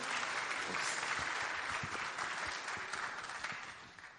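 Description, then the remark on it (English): An audience claps steadily for several seconds to welcome a speaker, a dense, continuous wash of applause that holds level and then thins out slightly toward the end, with no voices over it. “Why don't we welcome him so that you can give him a little encouragement?”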